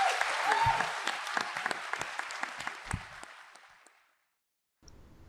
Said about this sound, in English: All right. Well, let's give our amazing panelists a round of applause.